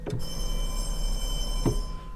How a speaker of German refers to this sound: Was im Tonfilm von Geräuschemachern produziert wird, musste beim Stummfilm die Kinoorgel mitliefern. Also Gong und eine schöne Feuerwehrglocke.